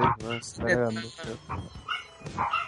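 A dog gives a quick run of high, whiny barks and whimpers, several strained yelps tumbling one after another over under three seconds.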